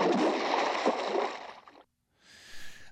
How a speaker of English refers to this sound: I say that's a baptism on a really huge guy, and they couldn't dunk him and bring him back up, so they had to just drop him in the water first. While they dump loads of ice into the water.